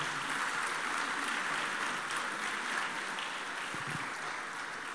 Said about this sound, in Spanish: Denle un aplauso al Señor, por favor, en esta mañana.